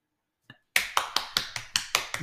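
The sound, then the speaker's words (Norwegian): Steady hand clapping after a sung Christmas hymn, starting after a brief faint tap: about eight crisp, evenly spaced claps at a brisk pace, fairly loud, with no talking. “I motsetning til i, uh, i kirka, så er det lov å klappe etter at jeg har ja. sunget.”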